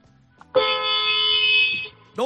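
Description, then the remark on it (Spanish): The horn of a Seat Tarraco, a large car, gives one loud, steady blast lasting over a second, a bright buzzing tone that stops abruptly, with faint voices just before and after. “es un Seat Tarraco.”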